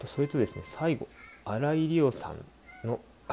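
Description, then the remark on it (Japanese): A child's alarm goes off, sounding a warbling, meow-like tone that rises and falls for under a second, with a person talking before and after it. “子供のアラームがごめんなさいね。”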